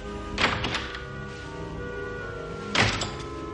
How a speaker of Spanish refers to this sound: Sonríe, se pone el puro en la boca y se acerca a la puerta poco a poco. Abre la puerta.